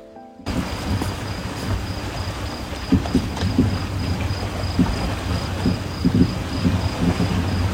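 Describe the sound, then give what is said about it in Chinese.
Wind and waves on the shore of Erhai Lake, beside the Cangshan mountains, at about nine in the evening just after dark: a steady, dense wash of noise with low rumbling gusts and swells, while a faint high insect trill pulses continuously over it. No one speaks. “有没有听到海风的声音、海浪的声音？我现在正在洱海旁边，哇，苍山洱海，哇，好舒服呀！”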